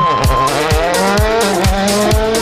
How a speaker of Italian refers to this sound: Beh, sento sound, attenzione. Senti, senti le marce come entrano. Dentro la prima, gas a martello e andiamo.